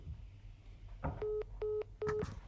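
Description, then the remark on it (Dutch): Three evenly spaced electronic beeps, each a steady mid-pitched tone with a short gap between, like a phone line cutting off after a call ends, over a faint low hum. “piep, piep, piep.”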